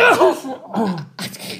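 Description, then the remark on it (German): A single abrupt sneeze: a short voiced intake of breath followed by a sharp, hissing burst of air, with no talking around it. “Gesundheit!”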